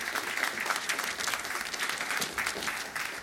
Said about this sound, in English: And give them a big applause.